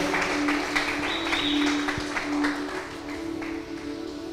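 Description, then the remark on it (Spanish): A church audience applauds to welcome a member back, many hands clapping in a dense, steady patter that holds for about four seconds at a moderate level, with a low constant hum underneath. “me gustaría que le diéramos un aplauso de bienvenida”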